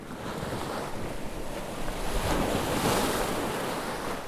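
Ocean waves wash in a steady, broad roar with a gusty wind rushing over the microphone, the surge swelling louder midway before easing slightly, no voices present.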